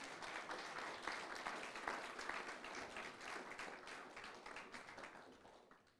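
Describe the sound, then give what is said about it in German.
A crowd applauds steadily, many hands clapping in a dense, even wash of sound that holds strong for several seconds before tapering off slightly at the end. No one speaks over it. “Ein Applaus nochmal für die.”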